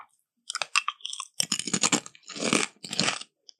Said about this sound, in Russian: Чипсы очень звучные.